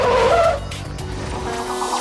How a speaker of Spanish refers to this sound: como habéis llegado, ¿eh? derrapando el coche eléctrico, Bueno, no tanto, los coches eléctricos son silenciosillos.